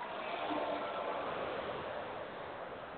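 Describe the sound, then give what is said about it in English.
A garbage truck rumbles by outside, a dense, steady roar of engine and road noise that stays loud for the whole few seconds, with no voices. “There's the garbage truck.”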